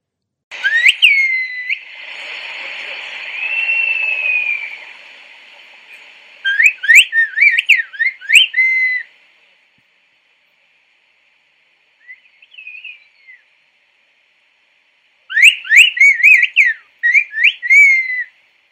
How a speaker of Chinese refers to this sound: 那接下来我们来放土耳其，呃，二零一七年被列为非物质文化遗产的口哨语。